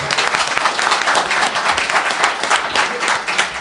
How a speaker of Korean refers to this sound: 여기가 저 박수가 상당히 인색한 데네요. 치라고 해야 치네요.